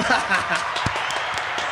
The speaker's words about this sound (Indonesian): ya itu dia tepuk tangan tepuk